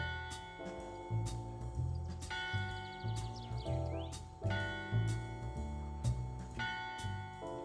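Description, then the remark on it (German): A bell rings out in a steady repeating pattern, its bright tones lingering and overlapping over a low, rhythmic backing. Fairly loud, with no voices. “Wenn dieses Klingeln zu hören ist, dann kommt Frauchen bald nach Hause.”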